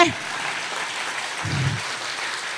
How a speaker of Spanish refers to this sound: ¿Habrá alguien aquí que esté listo para las nuevas puertas que Dios le va a abrir? Si usted está listo, déle el aplauso al Señor fuerte.